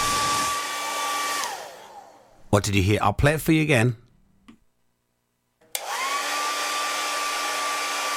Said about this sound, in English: Any hairdressers out there? It's a hairdryer.